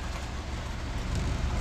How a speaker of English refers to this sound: leaves blowing around.